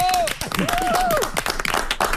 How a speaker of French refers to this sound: oui, on vous a même rajouté des bravos derrière Donc, ça donne encore plus d'ampleur à la chose.